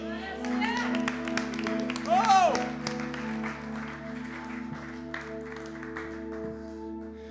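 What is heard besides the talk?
audience applauding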